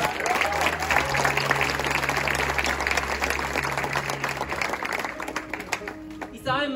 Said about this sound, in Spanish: Denle un fuerte aplauso a ellos.